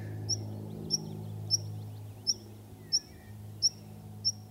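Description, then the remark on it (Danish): A meadow pipit gives a series of thin, high call notes at a steady pace, about seven in under five seconds, over a low outdoor rumble and faint background insect or bird sounds. “Det er en pipfugl, kan jeg høre. Det er en pipfugl. Det er en engpiber.”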